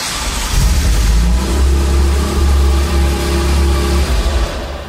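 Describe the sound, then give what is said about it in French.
A Ferrari 288 GTO sports car engine revs loudly, its deep throbbing rumble swelling and holding for several seconds before easing off, with no voices. “Mais si on les prend un peu dans l'ordre, parce que vraiment la première euh, de ces super voitures de Ferrari, c'est évidemment la, la 288 GTO.”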